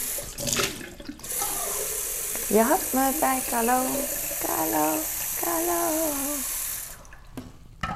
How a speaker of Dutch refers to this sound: Ik ga water. Ik weet niet wat ik in welke volgorde ga doen. Dus ik ga water in mijn waterfles doen.